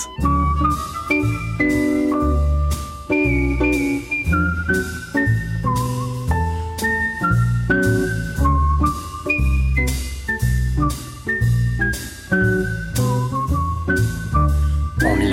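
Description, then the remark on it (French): A clear whistled melody carries a lilting tune over steady rhythmic six-string guitar strumming, played by one musician whistling while accompanying himself on the guitar, bright and continuous with no talking. “Et bientôt, comme il le dit lui-même, sa plus grande satisfaction est de siffler tout en s'accompagnant à la six un son qui deviendra sa marque de fabrique.”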